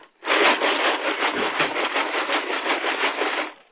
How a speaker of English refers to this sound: What do you think that is? it's a box of Legos in my there kid's closet.